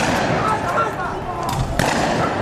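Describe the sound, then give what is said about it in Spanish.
Loud, dense street noise in Quito with an indistinct crowd din, broken by a couple of sharp bangs like firecrackers about two-thirds of the way through. “Así suena Quito.”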